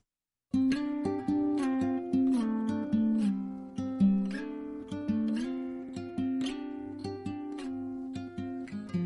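After a brief silence, an acoustic pop song starts abruptly, with steady plucked or strummed chords and a bright melodic line playing at a full, even level with no voices yet.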